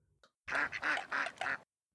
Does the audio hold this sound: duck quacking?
yes